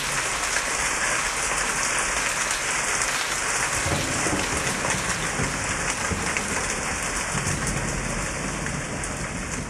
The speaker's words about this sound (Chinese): 今天我们在节目里边听到很多，它都是歌曲呢自带雨声哦，用这个环境声，然后去加强气氛的烘托。